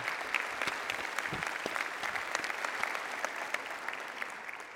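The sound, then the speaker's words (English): Sustained audience applause for all mothers on Mother's Day, a dense steady wash of many hands clapping with scattered sharper claps poking through, holding at an even loudness for the whole stretch with no talking. “So let's just big one big round of applause for all the mothers of this world.”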